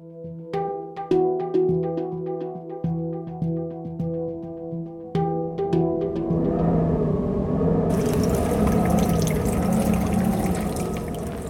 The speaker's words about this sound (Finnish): Milanossa, Italiassa on sateista ja tuulista. Päärautatieaseman edessä on vieri vieressä keltaisella kuljetuslaatikolla varustettuja polkupyöriä.